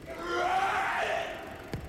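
A man lets out a loud, strained scream that holds for over a second before fading, ending with a brief sharp knock. No one speaks.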